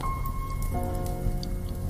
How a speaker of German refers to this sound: Das innere Bild von diesem heilsamen und magischen Kaminfeuer kannst du nun immer deutlicher wahrnehmen